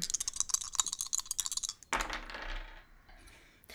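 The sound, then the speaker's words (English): Dice rattle and clatter briskly for a couple of seconds, then tumble onto a hard table with a sharp knock and a short skittering roll before settling on a five. No one speaks. “Well, that's a five on the dice.”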